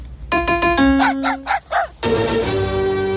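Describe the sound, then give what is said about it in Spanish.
A few ringing piano-like notes, then a dog barks four times in quick succession, loud, before a full sustained chord of music swells in; a film clip of the dog Beethoven. “¿qué nombre crees que le gustaría al perro? Él nos dirá cómo quiere llamarse.”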